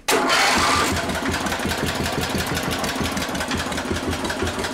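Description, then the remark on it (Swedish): A side-valve tractor engine runs steadily, its low, even chugging beats repeating in a quick regular rhythm with a brief louder rev at the very start. “Vilken harmoni det är i en sidventilare. Tjoff, tjoff, tjoff, tjoff.”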